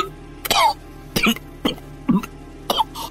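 A man coughs weakly, coughing up blood, in five short, separate bursts spaced roughly half a second apart, with no talking in between.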